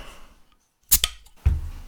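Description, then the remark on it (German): A beer bottle is opened: two sharp metallic clicks as the cap gives way, followed by a sustained, fairly loud fizzing hiss. No one speaks. “Ah, das macht ganz schön Zisch.”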